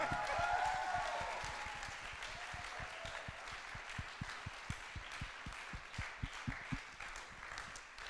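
A crowd in Frankfurt applauds loudly for a speaker, with some whooping and cheering at the start, then the applause settles into a steady, rhythmic clapping with sharp beats that continues to the end.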